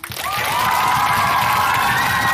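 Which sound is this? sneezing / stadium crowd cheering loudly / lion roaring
stadium crowd cheering loudly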